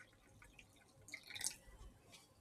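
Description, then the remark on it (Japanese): Faint, quiet dripping of hand-drip coffee during a coffee meditation, a few soft irregular drips and a light trickle with a brief brighter splash around the middle, no talking. “ドリップ音を聞きながら、ねばならぬを手放してみました。”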